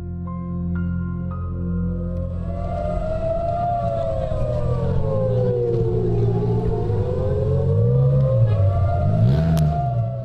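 An air raid siren in Tel Aviv, Israel, warning that the Israeli army's anti-aircraft system has detected an incoming missile attack, wails steadily, its tone slowly rising and falling in long sweeps over a constant low rumble, loud and sustained throughout with no one speaking.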